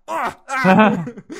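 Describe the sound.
A person's voice imitates characters groaning, drawn-out moans: two or three closely spaced, fairly loud vocal swells with a wavering tone, no words spoken.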